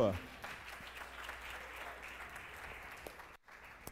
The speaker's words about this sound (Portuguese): Oh, vamos aplaudir a Deus lá do Rio de Janeiro.